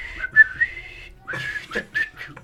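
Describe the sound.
Someone whistles a short, bouncy melody imitating a phone ringtone, with quick high notes in two bursts separated by a brief pause. No one speaks.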